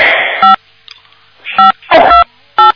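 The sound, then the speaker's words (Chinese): Telephone keypad tones beep as someone presses buttons on a phone during a call: short, loud, steady bursts, about four presses spaced irregularly across a few seconds, with bursts of crackly line noise between some of them and no talking. “不要按了，有人在按电话。”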